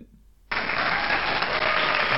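After a brief quiet moment, a burst of crowd applause abruptly kicks in and holds steady and loud, a dense wash of clapping that sounds like a played-in sound effect.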